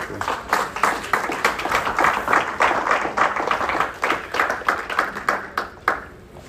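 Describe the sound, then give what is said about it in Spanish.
An audience breaks into steady applause for Jesus, many hands clapping in a dense, crackling wash that holds strong for several seconds before thinning out and fading at the end. “un aplauso a Jesús ahí.”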